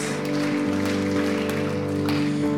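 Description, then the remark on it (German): After a prayer to Jesus, a crowd gives a big round of applause, dense, continuous clapping for a few seconds, over sustained musical tones humming underneath. “Lass uns einen riesen fetten Applaus geben.”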